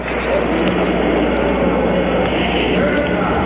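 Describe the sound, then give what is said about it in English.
A deep, continuous rocket-engine roar at the liftoff of Apollo 11, loud and steady throughout, with broad rumbling noise filling the whole clip and no pauses. “All engine running. Liftoff. We have a liftoff. 32 minutes past the hour. Liftoff on Apollo 11.”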